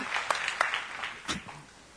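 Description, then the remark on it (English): An audience claps together in praise of God in a dense, steady patter of applause, with a few sharper claps standing out before it thins and fades by the end. No one speaks. “If you believe that, if you believe that God is good, give Him a clap and a praise even right now.”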